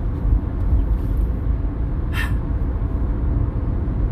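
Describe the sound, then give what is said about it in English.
A steady low rumble of road traffic with passing cars and buses, loud and continuous, with a brief hissing burst like an air brake midway. “you end up with things like that. Traffic, you know, it's just not good.”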